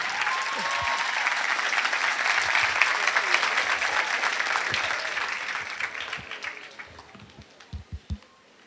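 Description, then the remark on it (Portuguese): A crowd breaks into sustained applause welcoming a speaker, a dense wash of many hands clapping that holds steady for several seconds, then thins out into a few scattered final claps. “E recebamos agora com muito carinho a salva de palmas”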